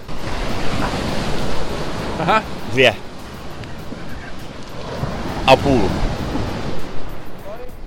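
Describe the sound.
Steady, rushing wash of sea waves on a beach fills the whole recording, with a few brief sharp clicks or splashes and short bits of speech over the surf, as players compete at skipping stones on the sea.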